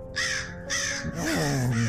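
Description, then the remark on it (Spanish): A crow caws loudly and harshly twice in quick succession, followed by a rougher, drawn-out call that blends with a low voice speaking. “Y el cuervo dijo,”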